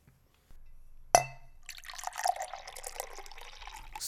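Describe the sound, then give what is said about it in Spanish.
A single bright clink of glasses in a toast rings out, followed by continuous liquid sounds of drinks being sipped and swirled, with no talking. “Salud.”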